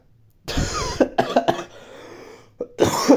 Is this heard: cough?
yes